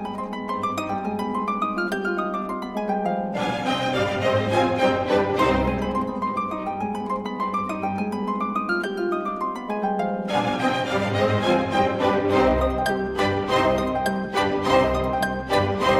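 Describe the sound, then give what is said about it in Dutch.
Harp music, a piece by Benjamin Britten, plays steadily with no voices, layered plucked notes ringing out in flowing arpeggios, bright and full, with a busier, richer passage picking up in the second half. “Vond je de muziek mooi?”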